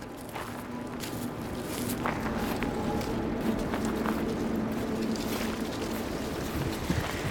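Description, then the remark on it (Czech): Two women breathe hard as they walk uphill at night in complete darkness among trees, steady footsteps crunching over a constant rush of outdoor wind noise, with no talking. “Jdeme do kopce. Já si myslím, že to jde slyšet z toho, jak decháme obě dvě.”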